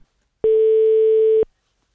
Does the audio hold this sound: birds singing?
no